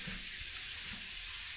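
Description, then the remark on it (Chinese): Running water pours steadily from a tap or shower head in a bathroom as a dog is bathed in winter, a constant bright hiss with a faint low rumble and no voices. “但还是要乖乖洗澡，知道吗？”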